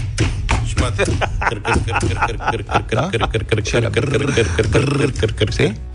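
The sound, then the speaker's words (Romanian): A rubber stamp at a Romanian post office thumps on paper again and again in quick, uneven succession, each hit a short, firm thud. Faint voices and background murmur sit underneath. “Și Mat- sunetul ăla de ștampilă.”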